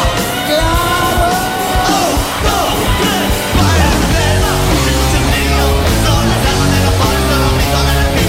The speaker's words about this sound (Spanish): Esta canción no se oxida.